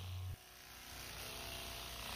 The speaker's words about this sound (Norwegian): Det er en NAV, en Nano Air Vehicle, en drone som etterligner kolibrienes flymekanisme.